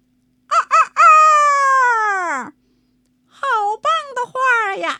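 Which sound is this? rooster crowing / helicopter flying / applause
rooster crowing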